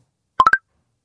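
A Snapchat phone app notification: three quick, bright electronic blips rising in pitch, played clear in a rapid burst, with silence on either side.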